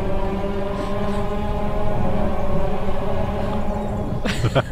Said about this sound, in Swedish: det där var Youtube-klippet Distant Chainsaw.